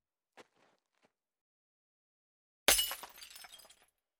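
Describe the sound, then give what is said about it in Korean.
A few faint light taps give way to a sudden loud crash as a vase, dropped by a blind man feeling his way toward the living room, falls to the floor and shatters, with shards scattering and tinkling for about a second and a half before stopping. “그렇게 조심했는데도 꽃병을 바닥에 떨어뜨려 박살내고 말았다.”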